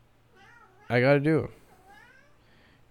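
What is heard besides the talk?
cat meowing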